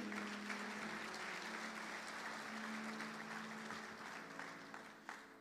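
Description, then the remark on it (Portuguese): An audience applauds the Lord during a sermon on the word of God, with dense, steady clapping that fills the whole stretch and tapers slightly toward the end, a low sustained hum faintly running underneath. “Quem pode aplaudir o Senhor, você que ameaçou aí?”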